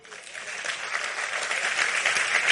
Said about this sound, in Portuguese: Aplauda ele.